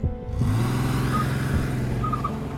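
A car engine turns over and catches after a brief quiet moment, then settles into a steady, low, rumbling idle with a faint whine on top. No one speaks.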